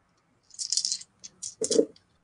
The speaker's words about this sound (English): So roll four dice and add your quick score.